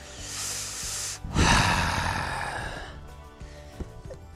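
An electric fan running: a steady airy whoosh over a low motor hum, briefly swelling louder as a stronger gust of air hits, then settling back. No one speaks.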